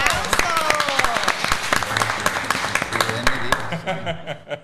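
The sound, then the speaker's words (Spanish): A crowd applauds with dense, steady clapping mixed with voices as a communications director enters the Junta Central Electoral outreach center, then the clapping thins out and fades toward the end. “aplauso.”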